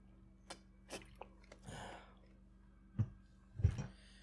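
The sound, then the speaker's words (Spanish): Faint handling clicks, then a brief splash of water being poured, followed by a couple of soft gulps as someone takes a small drink. No one speaks. “Y dice, un segundito, necesito un poquito de agua.”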